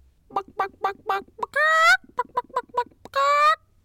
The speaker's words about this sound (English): But just for a second, imagine that it's the middle of the night, you're snoozing away, and all of a sudden you hear a racket coming from your chicken coop.